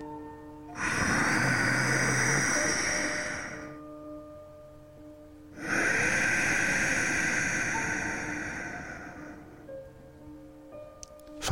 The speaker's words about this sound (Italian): Vi faccio sentire adesso aumentando un pelo eh, il suono sia nella fase di ispirazione che di espirazione.